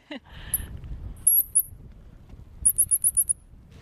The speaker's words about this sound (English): I thought I'd heard the bird, but that's just you and Kerry down the hill playing calls from little mm. speakers